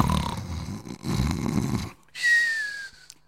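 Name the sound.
snoring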